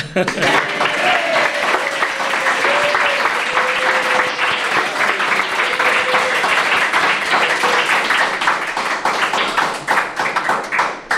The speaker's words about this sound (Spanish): bienvenido al Colegio Invisible. Bienvenido. yo creo que te mereces un aplauso más largo todavía.